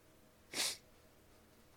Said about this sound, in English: And I'm sorry for the sniffling. You know what happens here on Rise Up. We cry, we're passionate, we get deep.